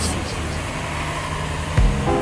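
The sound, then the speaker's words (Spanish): Steady low rumble of car traffic fills the scene, with a vehicle seeming to pass by near the end and a faint higher whine rising briefly over the hum. “El ruido de los autos, el canto de los loros, las nubes amarillas.”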